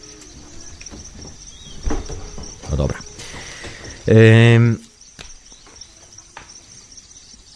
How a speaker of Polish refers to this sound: przepraszam bardzo, bo to sobie z krzesłem e, na rozrabiałem i musiałem sobie poradzić z krzesełkiem, żeby po prostu móc spokojnie usiąść na nim, bo mi deseczka wypadła.